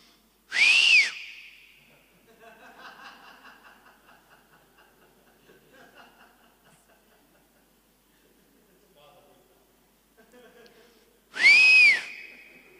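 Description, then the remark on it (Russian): Two loud, sharp shepherd's whistle blasts calling a stray sheep back to the flock, each rising and falling in pitch, one at the start and one near the end, with faint murmuring voices in between. “И знаете, если, если какая-то овечка отбивалась от стада, то сразу раздавался такой пасторский звук.”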